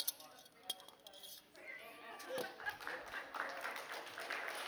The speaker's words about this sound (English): What are you clapping at him for? He's getting free, free steak.